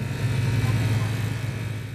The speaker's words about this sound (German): denn das Fahrzeug schwankt wie ein Schiff auf schwerer See durch die weiße Schnee- und Eiswelt